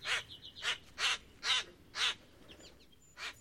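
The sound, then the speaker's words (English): Harsh, jangling blackbird calls ring out, five grating squawks in a steady run about half a second apart, then a short pause before one more. No voices. “filling the air with their sharp jangle, and alighting on the ground in quest of food, their polished coats glistening in the sun from very blackness as they walk about.”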